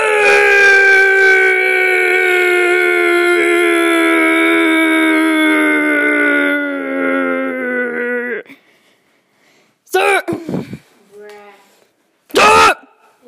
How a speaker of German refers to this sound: Okay, Schrei …. Aber so richtig laut und so richtig lang, ne? So. Okay, mach mal.